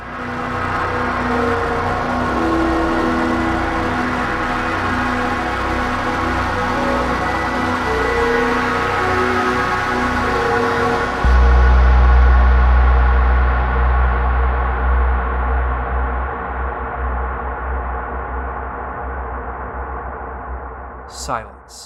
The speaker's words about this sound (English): hopeless melody is drowned out just like the other songs were beforehand, in an exceptionally powerful swirl of distortion and chaos.